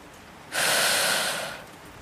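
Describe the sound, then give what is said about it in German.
A woman from Altenburg draws a single deep, airy breath in through the nose, lasting about a second, fairly loud with a soft hissing quality, then fading into quiet room tone. “Die Altenburgerin atmet vier Sekunden lang ein. Sie hält die Luft im Brustkorb, dann atmet sie lange aus.”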